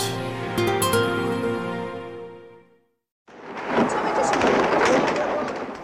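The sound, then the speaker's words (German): A short sustained musical tone fades to silence, then a loud, noisy city street in Tehran, Iran, in January 1979 erupts with gunshots cracking and echoing over a dense wash of crowd and traffic noise. “Teheran im Januar 1979, Schüsse in der iranischen Hauptstadt.”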